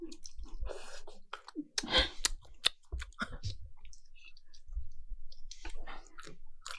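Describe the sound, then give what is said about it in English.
Open-mouthed chewing, with wet smacks and sticky clicks in an irregular rhythm, fairly quiet and heard alone without any talking. “Chew my mouth open.”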